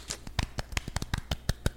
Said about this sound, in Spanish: Oh my god, lo hicimos bien, creo. Yo digo que también que lo hicimos muy bien. Aplausos.